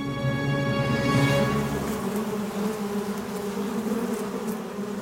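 A dense swarm of ten to twenty thousand worker honeybees, a cloud about twenty metres across swirling in the sky, buzzes steadily in flight, a loud, continuous droning hum of countless wingbeats with shifting pitches, filling the whole moment with no voices.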